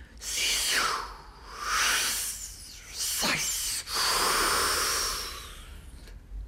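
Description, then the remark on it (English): A voice imitates surf with breathy hissing and swishing sounds, rising and falling in several long sweeps, fairly loud, like waves swirling and chafing against low rocks. “Listen, a four worded wave speech.”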